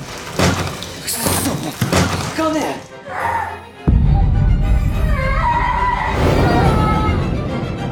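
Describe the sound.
A sudden, loud explosion in a school art room bursts in after several seconds of voices and busy background sound, followed by a heavy, sustained low rumble that lasts until the end, with higher tones and voices continuing over it.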